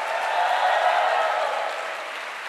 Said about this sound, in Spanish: Ahora sí el aplauso para el Señor. Y acompáñelo de un grito de júbilo.